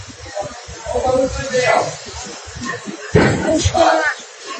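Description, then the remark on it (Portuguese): Muffled booms of several explosions from far off in the direction of Embel, at 4:40 in the afternoon during a general power outage: two or three dull thuds with sharp onsets around the middle and later, over rumbling wind-like noise and faint background voices. “São 4h40 da tarde, não tem luz e várias explosões ali na, na direção da Embel.”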